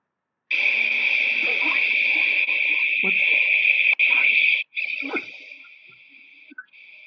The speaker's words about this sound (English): can I play some whale sounds now?